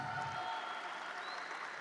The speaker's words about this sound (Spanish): eso es, dale un aplauso, pero al que se lo merece, a Jesucristo.